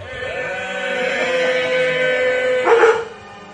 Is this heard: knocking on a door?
no